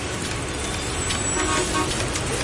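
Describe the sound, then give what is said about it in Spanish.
Dense, steady traffic noise fills the scene, with car horns tooting over the rumble of idling vehicles in a congested street. The honks blend into the continuous roar. “Si estás en tu auto embotellado en el tránsito, tienes dos opciones.”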